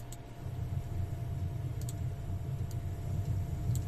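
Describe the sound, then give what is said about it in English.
A computer mouse clicks a few times at irregular intervals as someone clicks through a web page, small sharp taps over a steady low rumbling background hum, with no one speaking. “The guy clicking through a web page.”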